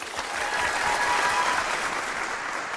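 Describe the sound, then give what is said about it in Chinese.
A crowd applauds with dense, steady clapping that holds at an even, fairly loud level for about three seconds, with no one speaking, welcoming the leader of a tree yoga session, the first activity of a slow-living festival. “掌声有请！”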